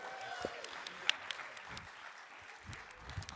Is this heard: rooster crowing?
no